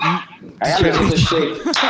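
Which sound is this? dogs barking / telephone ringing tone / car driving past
dogs barking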